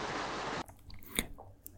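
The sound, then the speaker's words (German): Heavy rain on a corrugated metal roof, heard from beneath the roof on a Monday of nonstop rain: a loud, dense rushing hiss that cuts off abruptly, leaving quieter scattered sharp taps and crackling patters. No one speaks. “ich hoffe, man hört es einfach, wie arg dieser Regen darunter prasselt.”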